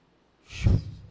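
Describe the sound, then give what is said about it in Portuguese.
A single deep, breathy exhale, swelling quickly and trailing off, a person imitating the slow, controlled breathing of an Olympic archer before aiming at a target, with no words spoken. “Os caras ficam um tempão, irmãos, respirando, respirando, calcula o vento.”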